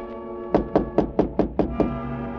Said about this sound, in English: The little cockney showed me to my room. And it was about a uh, half hour later that I heard a tap on my door.